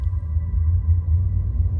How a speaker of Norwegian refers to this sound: På vei ned igjen hørte Asbjørn en lyd. Den kom ovenfra. Han retta hodet opp mot himmelen og fikk øye på et fly.